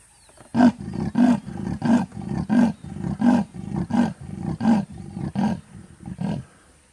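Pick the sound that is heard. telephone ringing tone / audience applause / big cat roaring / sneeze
big cat roaring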